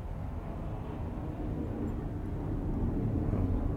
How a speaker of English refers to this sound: Wow, how low is that plane flying? That's a. Is there an air show going on?